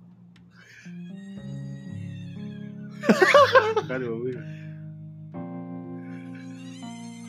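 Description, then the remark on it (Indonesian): Cats, mating or fighting, yowl in long, drawn-out, wavering cries that rise and fall in pitch, with a louder, more agitated burst in the middle and a short exclamation from a person. “Masa suara kucing sih lu dengerin ya suara kucing kawin”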